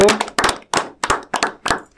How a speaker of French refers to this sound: Effectivement, c'est les filles qui ont gagné ce quiz à 5 points et demi. Alors, on peut les applaudir. Bravo.